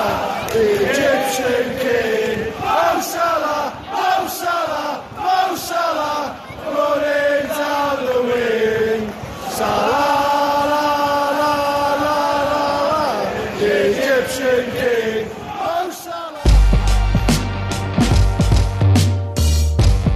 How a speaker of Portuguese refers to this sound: Vamos dar um sobe-som aqui para a torcida do Liverpool então.